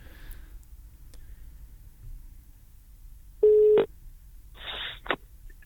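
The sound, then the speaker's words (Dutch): A telephone line rings out on an outgoing call to someone's mother: one loud, steady ringback tone, followed by a couple of short crackly bursts like the line connecting, over a faint low hum. “Kijk, de telefoon gaat over.”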